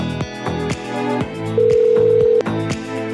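A single steady telephone tone hums for nearly a second over rhythmic background music with plucked, repeating notes; no one answers and nobody speaks.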